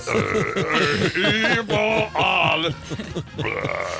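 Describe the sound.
A voice belches the German national anthem, drawing out a continuous string of deep, croaky burped notes that rise and fall like a sung tune, loud, with only brief breaks for breath.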